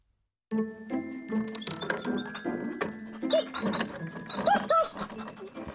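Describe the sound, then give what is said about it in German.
A rag collector's dog trots along beside a rattling cart as they go around collecting, with clunks, thumps and light jingling and a few short whining yelps from the dog over the steady rolling noise. “Wir ziehen jetzt mit ihm und seinem Hund Basti wieder herum.”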